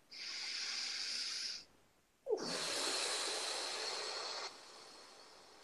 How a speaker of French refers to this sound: Une respiration.